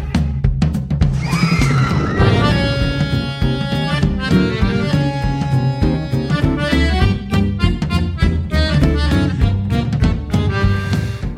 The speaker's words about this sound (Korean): 어디선가 들리는 비명 소리. 그는 왜 비명을 질렀는가?